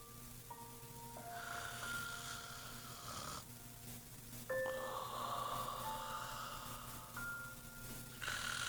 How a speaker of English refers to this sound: … closed his eyes and started to snore softly.